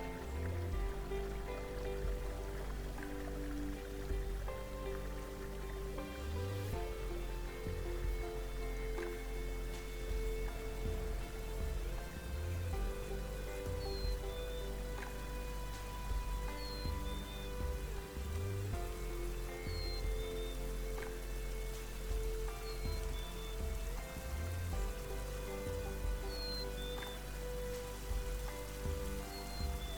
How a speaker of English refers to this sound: the canyon ends at a series of waterfalls cascading gently into several deep natural pools.